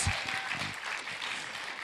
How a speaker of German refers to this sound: Geben wir doch Applaus für den Fabio.